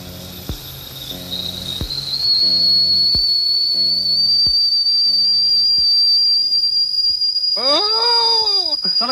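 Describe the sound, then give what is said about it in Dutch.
A whistling kettle recorded on a cassette recorder whistles loudly: a piercing, steady high tone rising in at about two seconds and holding, over rhythmic low tape pulses and hiss, with warbling swoops near the end. “Ik heb wat opgenomen op de cassette recorder, een fluitketel.”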